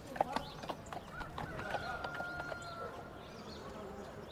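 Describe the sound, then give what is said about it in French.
A donkey follows an elderly couple slowly past in a small village, its hooves clip-clopping on hard ground in a slow, uneven series of sharp steps, over a busy outdoor background with a faint sustained tone and murmur. “Un couple âgé, vêtu de noir, qui passe lentement, suivi par un âne.”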